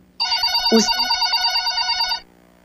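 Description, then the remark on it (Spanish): A telephone rings loudly with an incoming call for about two seconds, a steady trilling bell with a rapid warble, then stops abruptly; a brief low voice-like blip cuts in near the start. “Y tenemos otro mensaje, tenemos una llamadita.”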